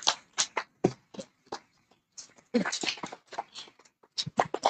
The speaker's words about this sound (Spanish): Y sin más preámbulo, pues recibamos con un aplauso al apóstol